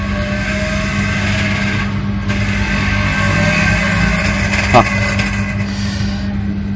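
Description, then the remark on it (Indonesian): A motorcycle engine hums steadily, a continuous, fairly loud rumble of street traffic with no clear pauses, and a brief sharper blip near the end. “motor di sini tuh lebih lebih banget gitu gue paling gak suka Jakarta dengan apa namanya motor motor Jakarta yang dimodif gitu knalpotnya”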